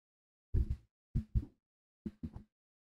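A dramatic heartbeat sound effect: three deep double thumps in a steady lub-dub rhythm, each pair separated by short silence, with no voices.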